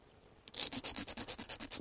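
A small black soft slate flake is ground back and forth on an abrasive slab to sharpen its edge into a tiny chisel for miniature work, producing quick rhythmic scraping strokes, about eight in steady succession, clear after a brief quiet start.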